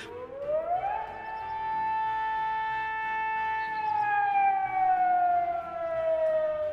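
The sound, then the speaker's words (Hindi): A factory siren in the industrial town of Rourkela, India, wails steadily, waking the whole colony, rising in pitch over the first second, holding a long sustained tone, then slowly sliding downward. It is loud and continuous with harmonic overtones and no talking. “पूरा colony siren की आवाज़ से उठता था”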